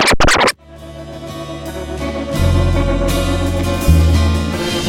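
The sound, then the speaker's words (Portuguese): A song starts after a brief scratchy burst, with a steady bass line and sustained instrumental chords playing loud; no singing or talking is heard. “Tem até uma música, né, que a gente tá ouvindo antes, né, da, nessa, nessa pesquisa que fala sobre isso.”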